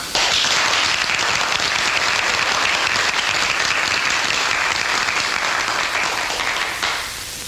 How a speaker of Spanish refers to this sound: Muchas gracias, colegas, por esos aplausos que más que para mí corresponden a quien me sirvió de conejillo de indias.